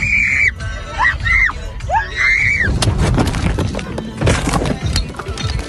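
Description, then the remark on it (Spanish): Several shrill, high-pitched screams from women ring out as their car rolls over, rising and falling, then give way to loud, rough crashing and rumbling noise with scattered knocks. “se descuida del volante por unos segundos y después se ve, se ve eh, que el carro da, o sea, da vueltas y, y, y los gritos ya después.”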